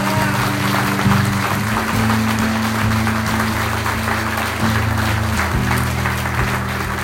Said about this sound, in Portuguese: Em nome de Jesus, dá um aplauso ao Senhor bem forte.